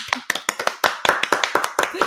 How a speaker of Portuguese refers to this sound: Palmas para ela.